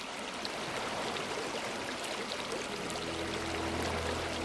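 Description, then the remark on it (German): Gentle splashing of scattered water drops over the steady, rushing wash of calm sea surf, continuous, with no voices; a faint low hum creeps in toward the end. “Du hörst nur das Rauschen des Meeres, die immer fortwährende ruhige Brandung und das sanfte Plätschern vereinzelter Tropfen.”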